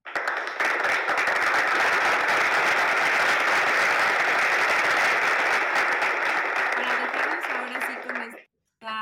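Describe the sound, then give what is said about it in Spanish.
Sustained applause from a crowd, a dense steady wash of many hands clapping at full volume for about eight seconds before cutting off abruptly, followed by a brief silence. “Sí, y entonces vamos a dar un aplauso”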